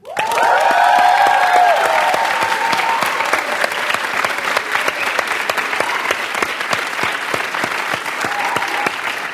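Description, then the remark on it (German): A live crowd of over 100 people at a talk event in a concert hall bursts into loud cheering and whooping, then settles into steady, dense applause with sharp individual claps that continues for several seconds. “Über 100 Leute sind hier. Jubelt mal bitte!”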